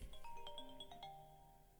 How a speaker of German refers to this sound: Jeder macht jetzt mal seinen Klingelton an.